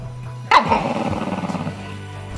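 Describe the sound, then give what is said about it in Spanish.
A dog lets out a sudden, loud bark, followed by a couple of seconds of rough, rumbling grumbling, over a faint steady low hum. “Y hasta tu perro te mira mal.”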